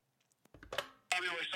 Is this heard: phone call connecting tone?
yes